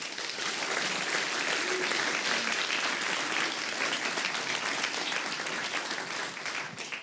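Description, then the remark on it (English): An audience claps steadily for about seven seconds to welcome Professor Markus Gabriel before his talk about his book, a dense, sustained patter of many hands at a fairly even loudness that tapers slightly toward the end. “But before we do that, I would like to give I would like you to give a very warm round of applause to Professor Markus Gabriel.”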